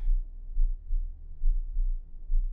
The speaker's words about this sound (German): Deinen Herzschlag spürst du